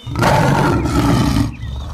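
A lion lets out a single deep, powerful roar lasting about a second and a half, loud, with rumbling low tones before it cuts off abruptly.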